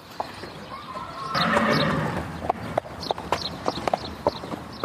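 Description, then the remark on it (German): A 20-year-old horse lets out a loud, brief whinny, then its hooves clip-clop in a steady rhythm across a hard surface, with no one talking. “20-jähriges Pferd, genau.”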